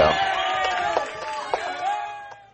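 A crowd cheers and applauds in a dense, steady roar, with high whoops and a few sharp claps standing out, before easing off slightly at the end.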